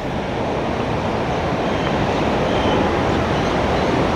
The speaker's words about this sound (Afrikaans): Goed, nou sien ek die die stroom water wat nou onder deur my beweeg, onder deur die brug waar ek nou staan